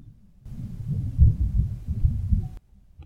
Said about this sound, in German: Jetzt donnert's. Ich hoffe, das kann man hören.